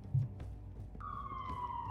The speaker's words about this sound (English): She looks at you with sirens blaring in the distance for some reason.